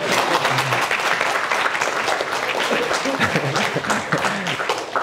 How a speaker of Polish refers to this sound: Dziękuję za te brawa, bo znaczy, że się rozumiemy. Albo lubicie przekleństwa.